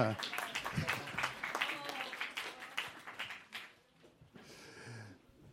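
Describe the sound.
An audience breaks into dense, steady applause, many hands clapping together for a few seconds before it thins out and fades, with a voice briefly heard as it dies down.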